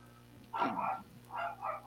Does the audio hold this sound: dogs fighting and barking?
yes